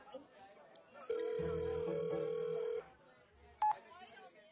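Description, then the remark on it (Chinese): Telephone dialing tones as a call is placed to an ex-boyfriend: a loud, steady mid-pitched tone holds for under two seconds, then after a pause a short, higher beep sounds once, with faint murmuring voices underneath. “哎，别说姐姐为难你啊，给前男友打电话，就说你被渣男骗了，怀孕三个月没钱打胎，跟他借个钱吧。”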